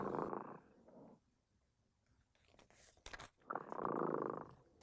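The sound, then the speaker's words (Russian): The cat Kot Dremota purrs in steady, rumbling bursts, with a quiet pause and a few soft clicks before the purring swells again, louder. “Кот Дремота запел свою песенку.”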